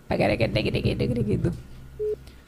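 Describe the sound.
A person talks briefly, then after a pause a single short electronic telephone ringing tone beeps once as a phone call is placed, clear and moderately loud over a faint low hum.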